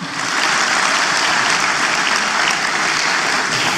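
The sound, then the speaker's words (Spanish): A church audience applauds loudly and steadily for the Lord during a sermon, dense clapping from many hands filling the space without pause for the whole stretch, no voices rising above it. “Vamos, dele fuerte ese aplauso al Señor.”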